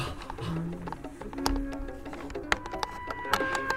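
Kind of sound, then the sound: household object, key turning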